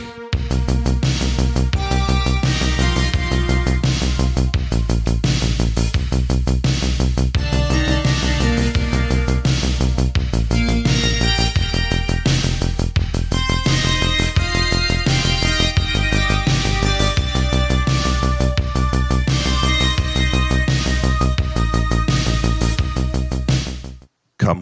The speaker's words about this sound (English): Hit the music.